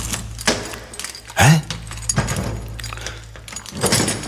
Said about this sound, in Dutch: Sleutel.